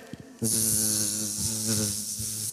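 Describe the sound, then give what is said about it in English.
A person imitates a bumblebee with a steady, low, buzzing hum lasting about two seconds, fairly loud, with a raspy hiss on top and no other talking. “What noise does a bumblebee make?”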